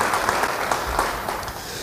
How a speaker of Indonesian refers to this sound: Yang mau dan siap, beri tepuk tangan kemuliaan bagi dia. Haleluya.